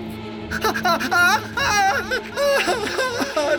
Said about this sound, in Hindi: तभी उनके कानों में एक बार फिर उसी लड़की के चीखने और चिल्लाने की आवाजें आने लगती है